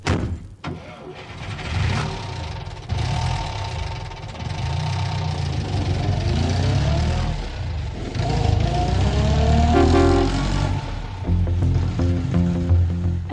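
A car engine turns over and settles into a deep rumbling idle, then a horn sounds in tones around the end as the engine keeps running, before the car drives off.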